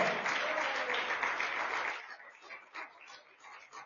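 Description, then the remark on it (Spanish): A church audience applauds the Lord in a dense wash of clapping that fills the first two seconds, then thins into scattered claps and murmuring voices as it dies away. “Vamos, que se oiga fuerte ese aplauso al Señor.”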